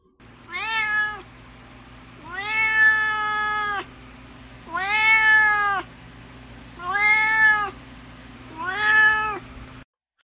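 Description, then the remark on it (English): A cat named Duarte meows five times in a steady, drawn-out rhythm, each call loud and harmonic, with short pauses between, over a low constant hum in the background. “And now it's time for Duarte's Corner, where my cat Duarte will share his opinions about the book.”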